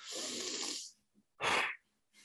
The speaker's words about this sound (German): erstmal mhm. durchatmen. Ja, mhm. zum Beispiel.